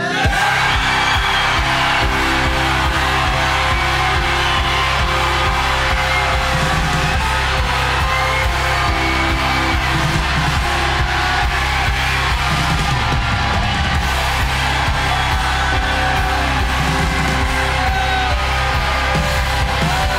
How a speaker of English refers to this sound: Ready? One, two, three. Everybody shout. Come on.